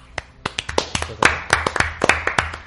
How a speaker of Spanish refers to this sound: Este es una, un gran comienzo para Walt Disney Company en el mundo de los juegos de tablero. Un aplauso.